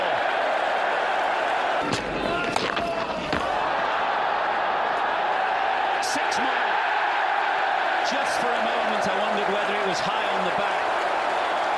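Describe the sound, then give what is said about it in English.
A large crowd at Lord's cricket ground roars and cheers in a dense, sustained wash of noise as Stokes smashes a ball from Green away to long on, with a few sharp impacts early on and a voice rising briefly through the din. “Huge cheer for”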